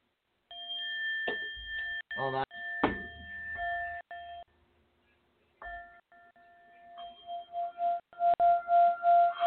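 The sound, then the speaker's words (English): A struck singing bowl rings out with a clear, sustained metallic tone, struck again several times with some handling knocks, fading quieter midway before swelling back up near the end. “I hear the initial ting and then silence.”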